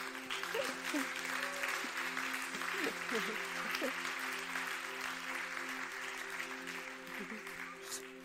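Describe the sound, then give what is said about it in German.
Steady applause from an audience fills the whole stretch as a speaker announces donating their hair for wigs, a dense wash of many hands clapping, with a few voices and faint cheers audible underneath. “Applaus”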